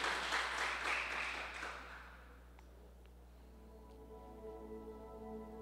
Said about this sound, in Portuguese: Você pode aplaudir o Senhor, ficar de pé no seu lugar. Glória a Deus.